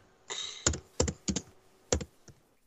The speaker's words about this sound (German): Warte, ich schreibe dir schnell in den Chat, was du eingibst.